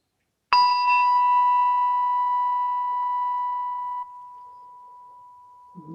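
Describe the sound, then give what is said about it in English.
A meditation bowl is struck at the start of a Zen meditation, its bright ringing tone sustaining and slowly fading over several seconds, heard alone. “So, start with the sound of the bowl three times.”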